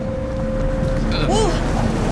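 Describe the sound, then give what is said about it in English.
Both of a boat's engines rumble loudly and steadily, with a low throbbing drone, a faint whining tone riding on top, and a brief rising-and-falling pitch sweep partway through. “What was that? Both the engines on.”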